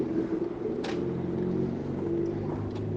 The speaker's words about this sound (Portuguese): Calma aí que eu. Pera um carro sempre tá vindo um carro, né? Uma hora dessa vai me acertar um desses carros aí.